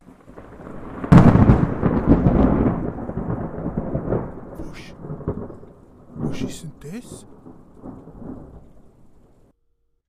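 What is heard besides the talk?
thunder with rain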